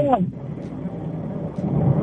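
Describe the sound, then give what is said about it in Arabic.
Steady wind buffeting the phone line of a caller in a car at Exit 6 in northern Riyadh, a low, rough rumble that roars continuously with gusty swells, muffled and band-limited like a call, with a brief voice-like sound at the very start. “في هوا عندك وين تكلم شكلك برا السيارة؟”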